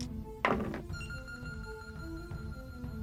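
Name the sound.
dice being rolled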